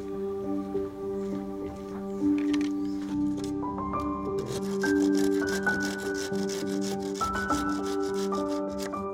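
A hand saw cuts through bamboo in quick, rhythmic rasping strokes that grow denser midway, with steady melodic background music playing underneath and no one speaking.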